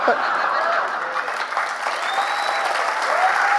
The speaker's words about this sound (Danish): Jamen altså, hvis I vil give ham et kvote 2-klap, så må I gerne gøre det.